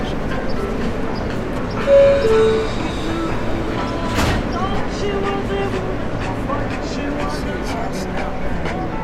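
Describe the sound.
A subway train rumbles steadily through the World Trade Center metro station in New York, a loud, continuous mechanical roar with a brief tonal chime early on, a sharp clank midway and faint voices murmuring underneath.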